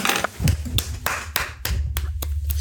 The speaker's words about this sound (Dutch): Applaus!